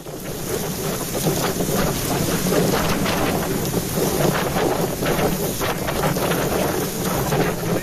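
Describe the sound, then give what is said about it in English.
Strong wind roars steadily, growing windier, and buffets the microphone, with a rumbling low rush and water sloshing around a boat. No one speaks, and the gusts stay loud throughout. “it's, it's getting windier.”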